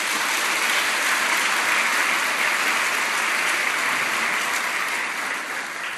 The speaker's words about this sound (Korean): 우리 큰 박수로 우리 공개하겠습니다.